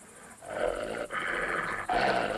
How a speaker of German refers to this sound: All das spielt sich erstaunlich geräuschlos ab. Mehr als ein ganz kurzes Knurren ist nicht zu hören, wenn die anderen Tiere dem Außenseiter klarmachen, weg hier.